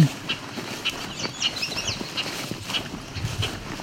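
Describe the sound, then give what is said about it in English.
Repeated short, sharp chattering calls of bobolinks, scattered irregularly over a low outdoor background hum, with brief twittering notes overlapping in places. “So all this annoyed chatter are all bobolinks.”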